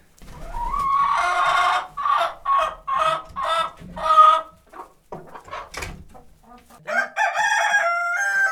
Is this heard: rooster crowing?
yes